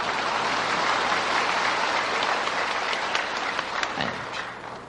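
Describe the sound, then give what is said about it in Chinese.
A crowd claps steadily for about five seconds, a dense wash of overlapping hand claps at a fairly even level, thinning slightly toward the end, with no talking. “这鼓掌都很勉强”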